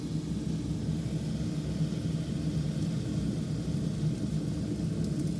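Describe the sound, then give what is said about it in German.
Water about to boil, being heated to make hot chicken broth, makes a steady, low rumbling roar with a soft hiss on top, unbroken and even in loudness for the whole stretch, with no voices. “Und das Wasser ist kurz vorm Zerkochen.”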